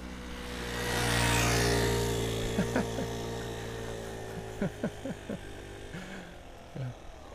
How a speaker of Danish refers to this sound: Der kommer der en knallert.